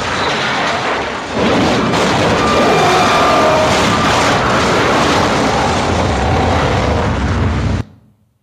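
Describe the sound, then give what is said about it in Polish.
A loud, sustained roar of an airplane straining unsuccessfully to climb, heard on the black box recording of Flight 90, rough and unchanging for about eight seconds before it cuts off abruptly into silence. No one speaks. “Dwie minuty później z czarnej skrzynki dochodzi odgłos samolotu usiłującego nieskutecznie wzbić się w powietrze.”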